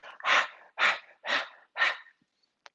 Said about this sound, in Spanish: ¿Para qué era esa respiración? La respiración es muy sencilla, va a ser solo a través de la boca y va a ser una respiración jadeante. ¿Qué es jadeante?